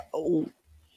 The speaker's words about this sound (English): what is that noise in the background? Sorry, I think my... that was my chair.